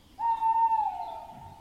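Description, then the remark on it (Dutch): An owl gives one long, steady hoot at sunrise on the Veluwe, ringing out clearly and holding its pitch before slowly trailing off, with no other birds or voices around it. “Nu hoor je alleen de uil.”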